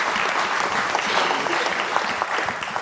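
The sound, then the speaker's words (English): An audience claps steadily, a dense, sustained wash of applause that stays loud and even throughout without any speech over it, as a member of a Belize team comes forward. “let's give her a hand as she comes.”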